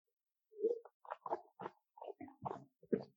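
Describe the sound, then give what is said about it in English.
Wet sipping and slurping as red wine is drawn in and swished around the mouth during a wine tasting comparing tannins. A quick series of short, uneven bursts over about three seconds, with no talking. “just to compare, I take a sip from the other one because I didn't drink today.”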